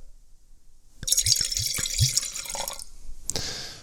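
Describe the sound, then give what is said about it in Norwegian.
Wine, a blend of three grapes, mostly Silvaner, pours into a glass in a steady bright gurgle lasting a couple of seconds, with a few low glugs from the bottle, followed by a brief clink. “da Jeg må helle i glasset.”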